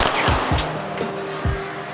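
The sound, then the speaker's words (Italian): A starting pistol cracks sharply at the start of a 400-metre semifinal on a running track on a sunny day, with several quick bangs and pops echoing in uneven succession, loud over a low, steady background hum. “Pronti? Ecco, lo sparo.”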